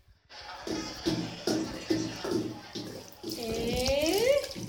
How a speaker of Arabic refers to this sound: يا سلام على هالحمام ولا المية بشهو القلب ولا المساج والجاكوزي